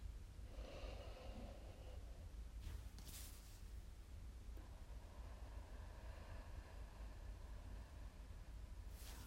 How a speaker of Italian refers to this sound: Quindi facciamo un bel respiro tutti insieme.